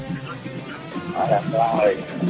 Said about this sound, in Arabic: الو الو قفل الراديو لو سمحت